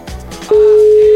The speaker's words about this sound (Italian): Squilla, quattro squilli per tutti, eh.